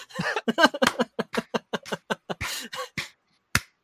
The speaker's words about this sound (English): I'm clapping.